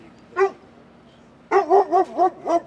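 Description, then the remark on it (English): A search dog named Peter Pan barks once, pauses, then lets out a rapid run of five sharp, loud barks as an alert that it has detected something during a search operation, with no voices around. “the dog has detected something.”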